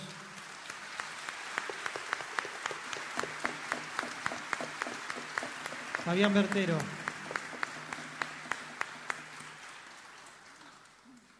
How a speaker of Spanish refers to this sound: No sé si hemos, te hemos dado un aplauso a vos.